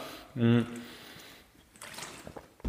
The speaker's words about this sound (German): Jetzt kommen wir direkt zum nächsten Punkt. Ich nehme direkt kurz mal nochmal einen Schluck Wasser.